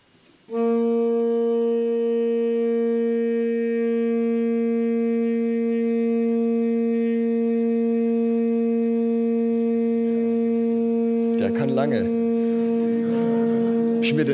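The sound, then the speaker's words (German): A single wind instrument holds one steady, medium-loud note for over ten seconds without wavering, rich in even overtones, played at medium volume for as long as the player can; near the end, rustling and a brief voice intrude beneath it. “spiel uns doch mal bitte einen Ton in mittlerer Lautstärke. So lange wie du kannst.”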